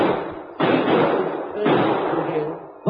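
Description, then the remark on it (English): Three loud gunshots, roughly a second apart, each a sharp crack that trails off into a long, noisy rumble, after which someone has been shot in a balcony; no voices are heard. “were shots, Spike. Look, someone's been shot in the balcony.”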